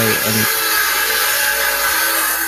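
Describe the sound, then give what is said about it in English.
A saw grinds steadily through wood outside, a sustained rasping hiss that fills the whole stretch with little change in loudness. “Was that a saw? It's, it's a, a, saw.”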